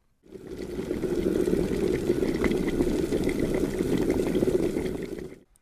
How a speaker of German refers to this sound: Ja, ganz charakteristisch, wenn das Wasser dann kocht, gibt es nur noch Bläschen, die ganz nach oben kommen, die an der Oberfläche zerplatzen und das gibt dann das charakteristische Sieden und äh, Blubbern.